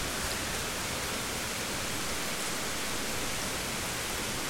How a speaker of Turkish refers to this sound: ilk günün verdiği heyecanla bir gün yağmur yağarken onu ses kaydı yaparken çıktı bu kayıtlar.